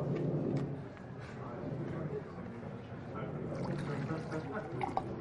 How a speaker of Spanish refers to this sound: Dejad un momento que trasvase otra vez el agua.